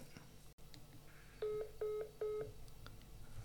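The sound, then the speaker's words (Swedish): Three short, evenly spaced electronic dialing tones, like a telephone keypad being pressed, sound clearly over a low background hum, each beep lasting a fraction of a second. “Det låter som att det är ett eh, 56k-modem som kollar upp.”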